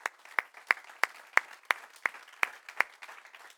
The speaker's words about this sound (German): Und äh, wir möchten euch noch einmal mit einem kraftvollen Applaus begrüßen heute Morgen.